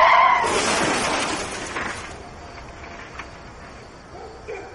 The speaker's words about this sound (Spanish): Rockefeller, ¿por dónde estás conduciendo? ¿No estaremos yendo contramano? No, pues no estoy seguro. Voy a ver. Abre la puerta y el coche da bandazos.